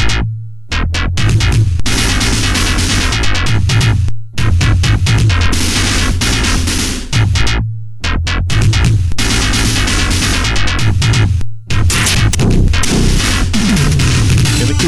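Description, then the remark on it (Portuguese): A loud, driving soundtrack from a Sega CD video game with a pounding low bass line and dense, crashing percussion, broken by a few abrupt pauses before the heavy loop kicks back in; no voices. “aquela música do Heavy Nova é muito legal”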